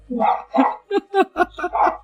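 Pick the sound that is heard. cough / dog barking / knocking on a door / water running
dog barking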